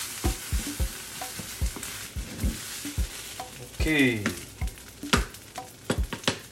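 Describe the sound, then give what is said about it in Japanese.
Loud, crackling sizzle as soy sauce is poured around the edge of a hot frying pan as the final seasoning, with repeated sharp scraping and clanking of a utensil as green vegetables are stir-fried; a brief spoken word is heard. “で緑のね野菜を最後入れ終わった後に最後の味付けです醤油醤油をライパンの周りにかけますこれが最後の味付けです”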